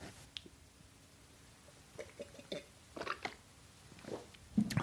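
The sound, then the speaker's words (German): Quiet sipping of coffee: a few soft slurps and wet mouth clicks at an uneven pace, ending with a slightly louder gulp. No one speaks. “Ich trinke noch einen Kaffee.”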